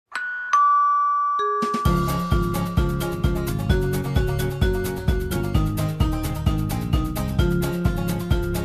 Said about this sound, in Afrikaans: klokkie sê tring tring tring en die kerk se klok sê dong dong die voordeur klokkie sê tr tr en die etensklokkie sê tingelingeling